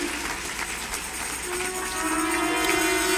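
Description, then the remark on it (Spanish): A standing audience applauds the Lord in a steady, dense wash of clapping that keeps going without a break and swells slightly toward the end, with a low sustained hum running beneath it. “Y denle un aplauso al Señor de todo corazón.”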